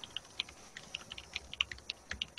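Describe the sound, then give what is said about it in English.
Rapid, irregular clacking of an extra clicky, old-school computer keyboard that looks like an '80s keyboard, with many sharp keystrokes in quick succession, fairly quiet, with no voices. “Well, I, have a very uh, clicky keyboard.”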